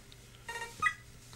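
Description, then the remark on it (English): Two short electronic beeps from an ID machine in the first room of a train in a video game, tonal and bright like phone dial tones, the second slightly louder, over a faint low hum with no speech. “Oh, that's just a ID machine.”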